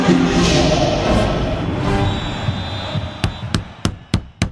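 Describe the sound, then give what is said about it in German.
Five sharp, evenly spaced knocks on a door in a quick steady rhythm, following a few seconds of dense, noisy background sound that fades as the knocking begins. “Es hat geklopft.”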